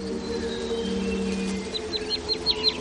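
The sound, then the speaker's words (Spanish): A small bird perched on a branch by a river gives a quick run of short, high chirps toward the end, over a steady low hum and quiet outdoor background. “La niña se fija en un pájaro pequeño que hay sobre una rama.”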